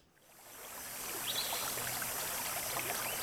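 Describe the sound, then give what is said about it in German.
Flowing river water, from which water is being fetched, fades in quickly and then runs steadily, a broad bright rushing with small gurgles and splashes, fairly loud, with no voices. “Holt bitte Wasser aus dem Fluss.”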